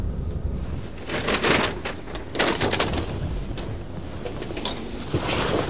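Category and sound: vehicle, train interior ambience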